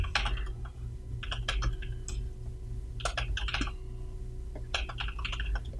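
Rapid computer keyboard typing in several short bursts separated by brief pauses, the keys clicking over a low steady background hum, with no one talking.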